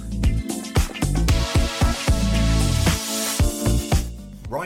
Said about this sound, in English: you heard the bell. We better get back to the podcast. Really? Yeah. I thought, you know, keep with the theme. Keep with the theme. Keep with the theme, recess, you know, school stuff.